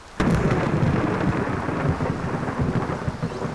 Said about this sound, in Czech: Z následujícího mohutného hromu pocítil, jak živel mocně udeřil nedaleko od něj. Následovala další záře. Silným zaburácením doprovázená už skoro okamžitě.